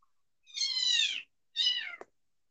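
A cat meows twice at home: a long, drawn-out, slightly falling call followed by a shorter one that ends with a quick click, with no talking.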